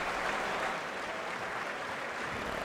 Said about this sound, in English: Let's see if this applause ever fades so I can just get on with the intro.